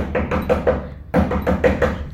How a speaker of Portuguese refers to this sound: Os meninos aprontavam a bateção na porta